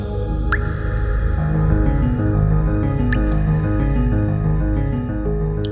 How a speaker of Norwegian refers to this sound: Her faller sakte, dråpe for dråpe, en dyrebar væske. Tungt vann.